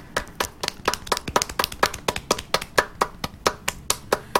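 A small group of hosts claps in a brisk, steady rhythm, a short round of applause with sharp hand slaps repeating for several seconds and no one speaking.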